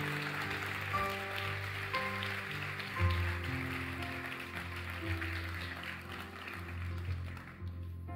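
audience applauding loudly

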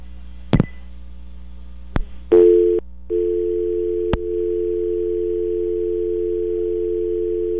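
telephone dial tone

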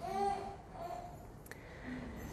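baby babbling

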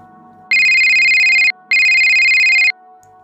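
mobile phone ringtone

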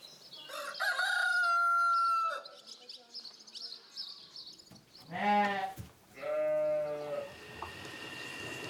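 rooster crowing

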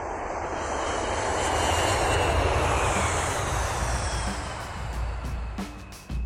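airplane engine noise

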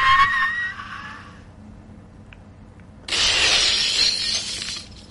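glass windows shattering

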